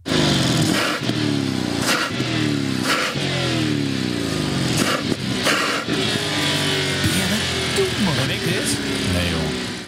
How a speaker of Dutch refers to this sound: De Bentley Flying Spur met V8-motor.